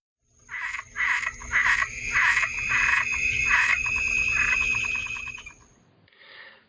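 frog croaking

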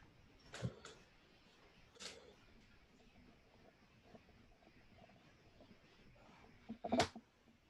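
door being opened

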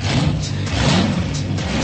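car engine revving

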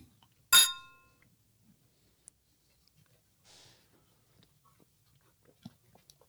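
glasses clinking together

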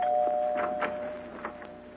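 doorbell ringing

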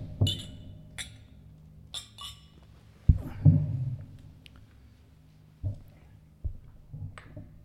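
glasses clinking

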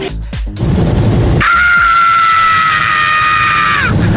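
scream sound effect

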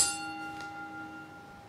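bell ringing

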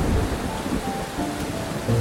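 thunderstorm with heavy rain

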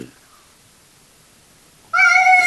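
cat meowing

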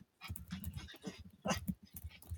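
dog whimpering

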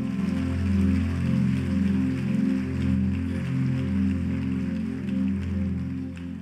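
audience applauding

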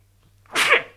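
a sneeze

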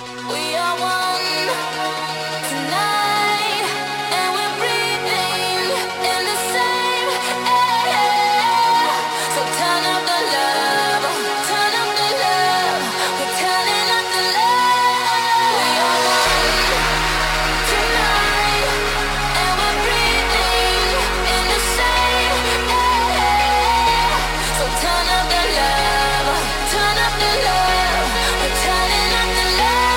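pop dance song playing

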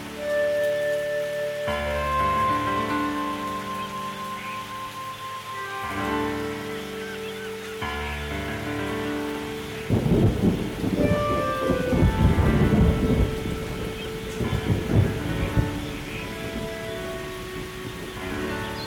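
rainstorm with thunder

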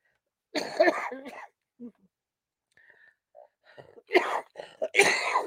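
coughing and throat clearing

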